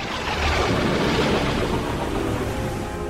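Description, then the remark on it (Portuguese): A steady, loud storm roar of heavy rain and wind, dense and continuous for the whole stretch, swelling slightly early on, with no voices present. “Afinal de contas, a tempestade continuava.”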